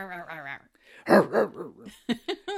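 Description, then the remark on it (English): A person imitates a dog with a few rough, throaty growling syllables in a quick rhythm, with brief voiced sounds before and after, mimicking a movie character who talks like a dog. “is there a dog in here?”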